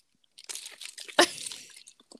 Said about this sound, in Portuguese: Eu assim, tô esperando engolir a água.